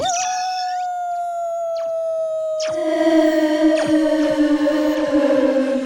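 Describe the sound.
A wolf howl holds a long, steady note that slowly sinks in pitch, and about halfway through a second, deeper howl joins it. Both are loud, with no talking.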